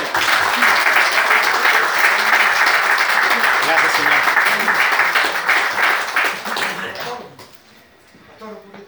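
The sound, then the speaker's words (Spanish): An audience breaks into sustained applause, dense overlapping clapping filling the first seven seconds before it tapers off, with a voice or two faintly audible beneath as it fades. “Ahí sí, ahora viene el aplauso, hermano, por supuesto.”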